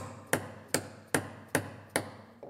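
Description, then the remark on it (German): In a joinery workshop, an apprentice uses a hammer to drive dowels into wooden strips: five sharp, evenly spaced knocks about every 0.4 seconds, fairly loud, each ringing briefly before the next strike. “hat inzwischen zum Hammer gegriffen, um Dübel in die Leisten zu schlagen.”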